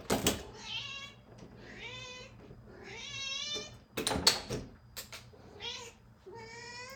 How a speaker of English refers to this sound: You want to meow in front of the microphone for a bit?